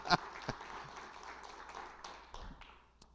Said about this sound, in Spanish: Yo le daría un aplauso a Dios por eso.